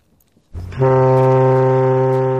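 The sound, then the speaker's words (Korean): A ship's horn sounds one long, loud, steady blast with a deep, rich tone that starts abruptly and holds without fading. No one speaks. “길게 뽑는군요. 백고동 소리입니다.”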